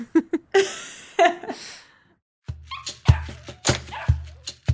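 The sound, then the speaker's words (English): A litter of small puppies yip and whimper in quick, overlapping bursts, with a short pause midway before a fresh flurry of high squeaky cries over a faint low hum. “i think writing with a litter of puppies next to me is probably my like dream scenario that just sounds like absolute heaven”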